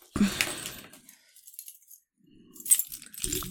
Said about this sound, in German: Zimmertür auf. So, Schlüssel werfen wir mal wieder hin auf dem Tisch. Auf dem Tisch mit dem Schlüssel. Ähm, Zack.